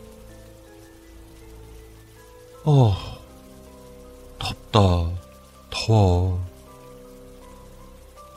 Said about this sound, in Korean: 그리곤 찬물로 샤워를 마치고 화장실에서 나오자